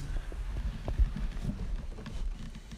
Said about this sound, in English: So I'm climbing down the stairs right now.